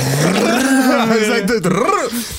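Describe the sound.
A person vocally imitates a motorcycle engine starting up, a loud buzzing drone that climbs in pitch, then wavers and dips like revving, with no other talk.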